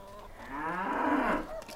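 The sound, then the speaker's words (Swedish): A cow, one of a household's three cows, lets out a long, drawn-out moo that swells in pitch and then sags, fairly loud, with no voices present. “Erik och Malin har tre kor.”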